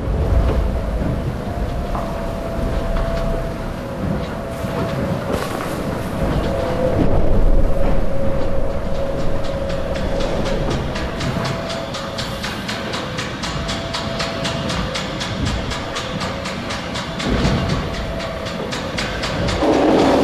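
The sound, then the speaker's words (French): A racing sailboat pounds through stormy seas: a loud, unbroken roar of wind and water with a steady hum, and a rapid rhythmic rattling building in the second half. No voices. “Face aux éléments déchaînés, le bateau joue sa propre partition.”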